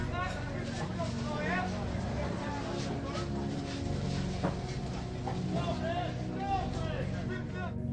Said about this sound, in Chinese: 当我们进入 Ultraviolet，就像是迈入了时空穿越的隧道，森林、大海、旧时光中的市场。